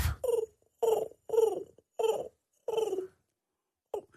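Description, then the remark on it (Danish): A man imitates a pigeon's cooing with a series of about six soft, throaty, rhythmic coos, followed by a brief pause and one short final coo. “jeg lokker jo altid duer til med en skål varm yoghurt”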